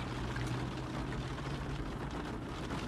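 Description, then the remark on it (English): Steady, even hiss of rain falling outside, a dense wash of noise with no breaks or individual drops standing out, over a faint low hum. Nobody speaks. “And it's raining outside if y'all could tell.”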